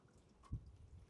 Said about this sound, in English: I can hear the raindrops coming through the drains. I can hear it, some coming off the roof, and I can hear, I can hear the rain hitting in different places. I can hear water flowing.